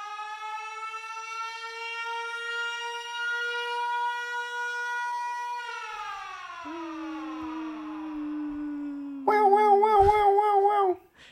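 A loud alarm siren wails on one steady note, slides down in pitch, then switches to a rapid warbling blare for a couple of seconds before cutting off abruptly.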